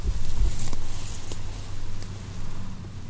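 A steady low drone of airplanes passing overhead, droning continuously beneath faint outdoor rustling and breezy noise, with no voices.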